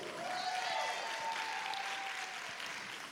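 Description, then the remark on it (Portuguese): A church audience applauds their pastor steadily, a dense wash of many hands clapping at an even level for a few seconds, with a faint sustained tone drifting through it. “Ah, a igreja precisa aplaudir. É seu pastor, gente. Pode aplaudir.”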